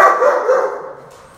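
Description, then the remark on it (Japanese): A dog lets out a single drawn-out bark that fades as it trails off, fairly loud, with no one talking over it. “ワンちゃんもいらっしゃってね”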